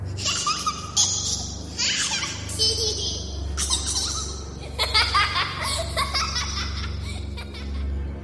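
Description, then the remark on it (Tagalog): A young child dressed in white laughs and babbles playfully while playing on a path late at night, in repeated high-pitched bursts, some giggles rising into squeals, over a steady low background hum. “Nang mapansin kong may nakaputing bata na naglalaro sa dadaanan ko.”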